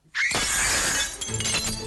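A loud burst of shattering glass as Fairy crashes through a window erupts and crashes on for nearly two seconds, mixed with Mothra's shrill, screeching roar at its start.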